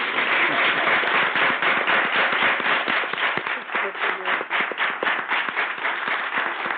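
A studio audience on a radio programme applauds steadily, dense overlapping claps forming a loud, sustained wash of sound that continues without pause, with individual sharp claps standing out near the end.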